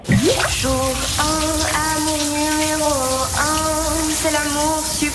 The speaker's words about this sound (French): Dans la salle de bain, nous avons oh, une jolie chanteuse qui chante sous la douche. Alors on va être discret, on va juste écouter